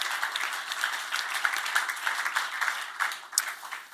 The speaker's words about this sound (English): So let's give the Lord a, a clap of praise, shall we, as we just acknowledge that.